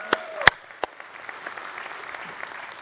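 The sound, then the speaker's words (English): A church audience at Mountain Road breaks into applause for its Bel Air campus across town, which meets at John Carroll School. A few sharp, separate claps give way to a dense, steady patter of many hands clapping at moderate volume, with no one speaking. “So let's hear for those guys over there across town.”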